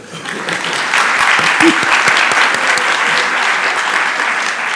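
Steady audience applause for a holder of the Europa Nostra award fills the whole stretch, a dense, even wash of many hands clapping at a loud, constant level with no voices breaking through.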